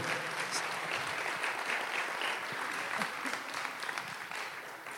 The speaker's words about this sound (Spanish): ¿Les encanta? Dale un aplauso al Rey Jesús, por favor.